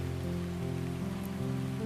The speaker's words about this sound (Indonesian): Malam ini hujan turun lagi. Sudah beberapa hari ini, hujan mengguyur ibu kota Jakarta.